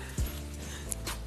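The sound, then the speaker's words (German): A dog, brought along on a visit and being called inside, gives a few short, soft whimpers and a brief yip, with faint background hum and no talking. “Ja, ich habe einen Hund mitgebracht.”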